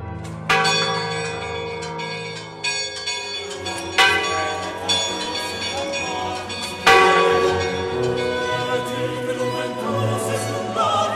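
Church bells peal loudly and continuously, several bells struck at irregular intervals with their rich, overlapping tones ringing and decaying into one another. No voices are heard.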